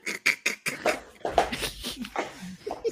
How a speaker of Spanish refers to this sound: Excelente apertura de puerta, mano.